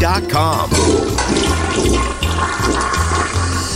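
A toilet flushes loudly, a dense rushing roar of water that swirls steadily for a few seconds without any voices.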